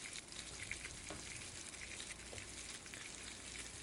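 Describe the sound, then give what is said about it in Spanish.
Olives and sweet cream cooking in a frying pan: the food sizzles and crackles steadily, a constant bright hiss with scattered pops and a few faint clinks, with no voices. “por último, se agregan al sartén aceituna, crema dulce y se cocina por varios minutos hasta que la crema se reduzca y se espese.”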